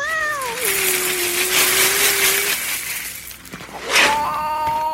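A cat makes drawn-out meowing cries while being given kibble treats, one long steady wail then a sharper call near the end, over a constant rustling, crunchy background noise. No one speaks.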